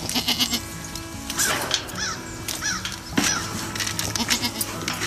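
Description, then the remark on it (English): Several goats bleat in quick, overlapping wavering cries, loud, over a busy outdoor background with other animal calls mixed in. “His interest in the animal began years ago when, as a young photographer and documentarian, he bought two goats to help him tame his unruly yard in Oxford, Mississippi.”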